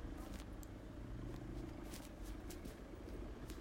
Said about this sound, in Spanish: La calle esta es angosta y los autos pasan cerca.